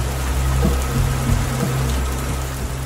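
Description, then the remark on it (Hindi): Steady rain hisses evenly throughout, fairly loud, over a low droning hum like an idling engine. No one speaks. “बारिश हो रही थी और तनवीर बेहद गमगीन था”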